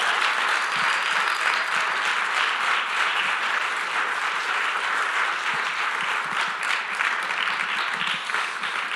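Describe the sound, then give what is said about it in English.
A large audience stands and gives Pastor Josh a standing ovation, applauding steadily and loudly for about nine seconds. Many hands clap in a dense, continuous wash, with no voices standing out. “And so to show our appreciation and thanks, uh, let's honor Pastor Josh by standing to our feet and give him a huge life point round of applause.”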